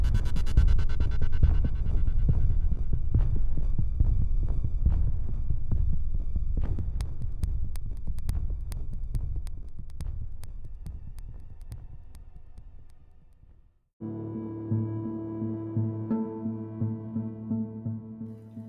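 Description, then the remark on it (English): A loud, deep heartbeat pounds in a fast, steady rhythm, thick and muffled, gradually fading before cutting off; a sustained humming drone with soft pulsing takes over near the end. “My hand found the knife at my hip as my brain chanted in time with my heart.”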